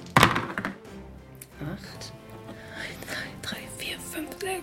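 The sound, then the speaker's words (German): Dice are rolled during a board game, a player rolling for one of their riders: a sharp clattering thunk at the start, then a few softer tapping clicks as they settle, with quiet voices murmuring underneath. “Ja, für den würfel ich, weil ich meine beiden Joker, glaube ich, für den armen Trottel da ganz hinten brauche.”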